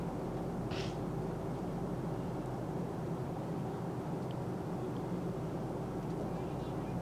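Steady, dense engine roar inside an airplane cabin, a broad constant rumble with strong low hum that never changes, plus one brief faint hiss near the start.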